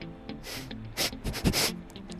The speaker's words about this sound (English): closely examined the body after a sniff of the corpse.